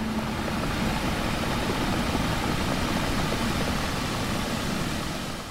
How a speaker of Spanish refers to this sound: Eso que escuchas, ese sonido del mar, cuando arrastra una serie de piedras de las que después te hablaré.